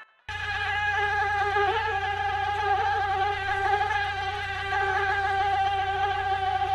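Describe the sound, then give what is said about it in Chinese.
A steady, high-pitched mosquito whine drones on without a break for several seconds, a thin buzzing tone with a slight wavering quality and no voices over it. “蚊子总是神出鬼没，你看不到它，也打不到它。”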